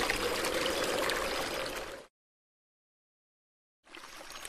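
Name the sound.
rushing river water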